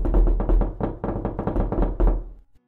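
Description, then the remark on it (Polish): Rapid, insistent knocking on every window of a house, many sharp raps in quick uneven bursts, loud, for a couple of seconds before stopping abruptly. “I to był dobry ruch, ponieważ diabeł, posiadający najwyraźniej nadludzkie umiejętności, sprawił, że klamki w obu drzwiach zaczęły się ruszać, a w każdym oknie słychać było stukanie.”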